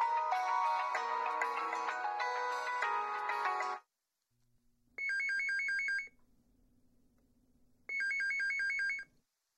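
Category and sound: signal or alarm, phone ringing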